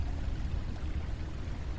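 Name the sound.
running water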